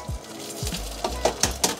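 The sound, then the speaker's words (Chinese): Two eggs sizzle in hot oil in a pan, a steady crackling hiss broken by a few soft knocks and three or four sharp metallic clinks toward the end. No one speaks. “然后现在要来下蛋，吃几颗呢？来个两颗好了。”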